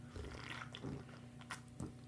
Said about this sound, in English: Let me take a sip here.